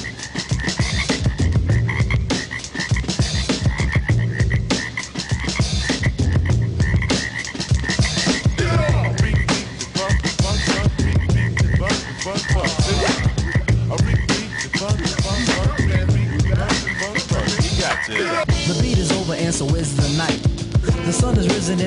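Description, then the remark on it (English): A dense chorus of frogs croaks continuously and loudly, overlapping calls forming a steady rhythmic pulse throughout, with no voices present. “So hear the frogs dancing in the street.”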